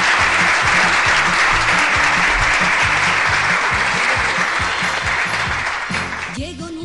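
Loud, sustained applause from a large crowd, a dense wash of clapping that fills the whole stretch and begins to thin slightly near the end.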